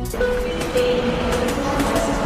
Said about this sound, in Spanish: El hipertren de la Balearic Network.